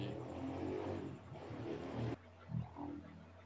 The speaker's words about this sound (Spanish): Y, esa fue una moto pasando por detrás de